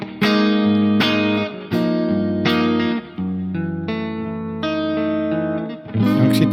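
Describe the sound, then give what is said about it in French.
Overdriven electric guitar played through a tube amp, chords struck in a steady rhythm with thick, warm distortion and a touch of reverb, loud with no voices. “Non, mais attends, donc c'est ça que tu veux alors, c'est ça, c'est un ampli comme ça, quoi.”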